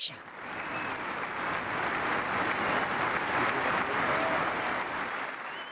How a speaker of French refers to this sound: les applaudissements que vous entendez ne sont pas pour le Deutschland Ticket mais pour euh, Franz Beckenbauer. C'était la semaine dernière à l'Allianz Arena le vendredi 19 janvier. 25 000 personnes dans le stade